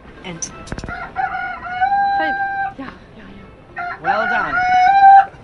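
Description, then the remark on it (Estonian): A string of recorded animal calls, the voices of the town musicians statue by the town hall, plays: a loud rooster crows twice in long, drawn-out bursts, with other shorter animal cries and yelps between them. “nii et igaüks, kes moosekantide häält kuulda tahab, teeb samas ka väikese heateo”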